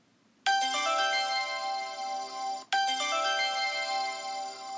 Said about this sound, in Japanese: おや、このチャイムは何だとじらしいことを言っておりますけども、えー、ここでですね、あの、新コーナーとしてですね、あの、勝手に告知コーナーというか、勝手に宣伝コーナーを行いたいと思います。